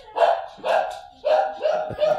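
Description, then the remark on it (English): A female dog barks repeatedly in a quick series of about five loud barks, each a sharp bright burst with brief gaps between them. “why she's barking so much”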